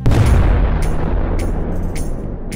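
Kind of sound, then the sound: sound effect, bomb explosion sound effect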